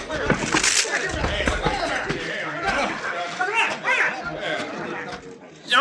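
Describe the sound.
A scuffle of heavy blows and thumps as a man is punched so hard he is knocked through a hat rack and out cold, then a clattering crash of wood, loud, with excited voices shouting over the commotion.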